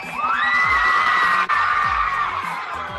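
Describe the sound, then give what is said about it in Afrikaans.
A large crowd of primary school children at Laerskool Tygerpoort, east of Pretoria, cheers and shrieks loudly and continuously, high-pitched voices whooping over a dense wash of clapping and noise, with only a momentary dip midway. “Kom ons gee vir julle, uh, julle kan vir julleself nog 'n groot applous gee. Kom ons maak geraas.”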